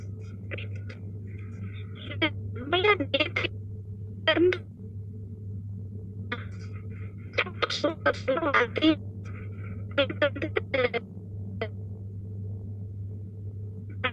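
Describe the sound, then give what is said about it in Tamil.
A phone-call voice keeps cutting in and out because of a network glitch, arriving in short garbled fragments with gaps between them, all over a steady low electronic hum. “network கிளிச்சர் நினைக்கிறேன் voice break ஆகுது ஆமா விட்டு விட்டு கேக்குது”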